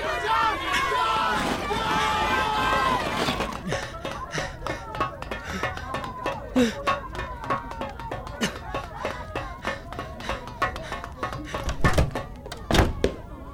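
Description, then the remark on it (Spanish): Raised voices at the start give way to a rapid, irregular patter of hurried footsteps and thuds, like several people running toward a laboratory, with a few louder heavy impacts near the end. “¡Hay que correr ya!”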